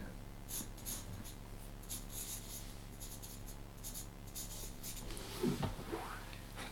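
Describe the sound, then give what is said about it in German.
A pen scratches across paper in short, quick strokes, fairly quiet, building to a brisk flourish near the end as a signature is written. “und während du das unterschreibst”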